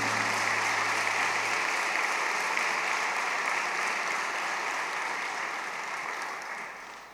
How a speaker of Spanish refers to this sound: Le damos un fuerte aplauso al Señor Jesús.